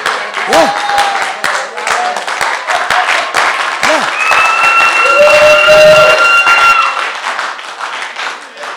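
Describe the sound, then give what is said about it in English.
An audience claps loudly and steadily for the Lord for several seconds, a dense crackle of many hands, with a few raised voices calling out above the applause. “So it means that this means that they intentionally give the cheap clapping to the Lord because they can clap properly.”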